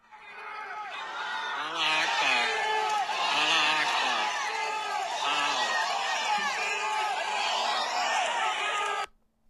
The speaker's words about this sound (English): Listen to this right in front of they were calling it Palestine Place Mall instead of Providence Place Mall. Listen to the crowd chanting Allah Akbar.